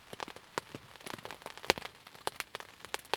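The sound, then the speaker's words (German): Thousands of small raindrops patter steadily onto the surface of a lake, Crno Jezero, setting it rippling: a dense scatter of small, irregular ticks and splashes with a few brighter, sharper hits standing out. No voices. “Stattdessen versetzten die abertausenden kleinen Tropfen den See in Schwingung, erzeugten noch viel mehr kleinste Wellen, welche die zuvor spiegelnde Oberfläche in ein nicht mehr zu verstehendes Kaleidoskop verwandelten.”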